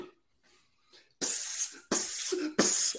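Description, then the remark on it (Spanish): Three quick, loud hissing bursts of aerosol insecticide spray aimed at a cockroach, each lasting about half a second, fired in close succession after a brief quiet stretch. “echarle un spray.”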